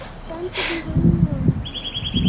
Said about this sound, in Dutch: Ja, kijk, dat vond ik een mooi vogel. Ja. Dan heb ik dat eens opgenomen. Eh, dus als iemand weet welke vogel dit is, laat het mij zeker weten.